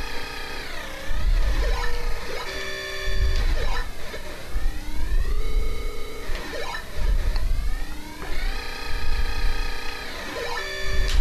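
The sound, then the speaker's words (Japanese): A harsh, buzzy electronic warning tone from a retro video game blares continuously after the player's character overheats and cannot move, with repeating rising and falling pitch sweeps and pulsing low thumps, loud with no talking. “おおなんかあの体に悪い音すんな。ビーって。やばそうな音すそう、るやばそうな。”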